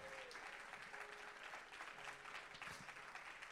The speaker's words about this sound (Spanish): Alguien hambriento que le dé un aplauso al Señor.